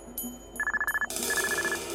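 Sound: telephone ringing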